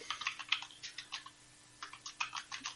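Rapid, irregular keystrokes on a computer keyboard in two bursts separated by a brief pause, with no voices.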